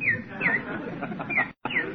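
A small bird chirps four times in a park in quick, sharp downward tweets, spaced unevenly over a steady outdoor background hum, with a brief dropout near the end.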